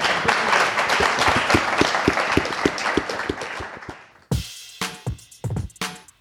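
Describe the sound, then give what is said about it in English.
An audience applauds with dense, steady clapping for about four seconds, then it thins out into a few scattered, louder bursts before ending. “One round of applause, please.”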